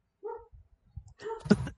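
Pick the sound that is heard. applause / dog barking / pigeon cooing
dog barking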